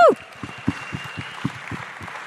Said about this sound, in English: And of course, we really, really, really, really, really, really, really should thank our lovely, lovely audience. So, everybody, give yourself a round of applause. Woo!